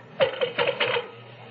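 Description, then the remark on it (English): A telephone being dialed for a call that goes unanswered: a quick run of four or five sharp mechanical clicks with a faint metallic ring, heard alone with no voices. “I tried telephoning Rex, but there was no answer.”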